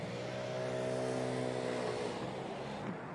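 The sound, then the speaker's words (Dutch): Two cars and a small scooter pass by on a street, the scooter's buzzing, droning engine standing out loudly and dominating over steady traffic noise before fading slightly. “En nou hadden we dus, nou reden er twee auto's langs en één scootertje.”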